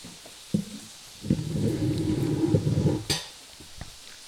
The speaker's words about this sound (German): Jetzt sind wir alle am Kauen und Essen.